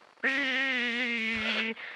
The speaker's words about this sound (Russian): Иду я, значит, к ним, как внезапно воздух начинает жужжать.